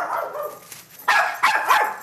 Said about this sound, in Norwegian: Og her jobber Askergutten dag og natt, kun avbrutt av en høylytt og særs kontaktsøkende hund.